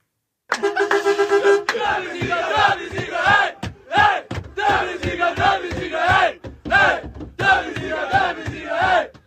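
A loud crowd of Dortmund football fans chants and roars in rhythmic, repeated bursts as they welcome their team back in Dortmund with flares and fireworks, opening with a short sustained horn-like tone before the shouting takes over.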